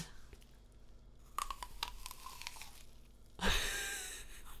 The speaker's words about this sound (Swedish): tar och tuggar på ett äpple här.